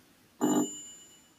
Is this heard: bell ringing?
yes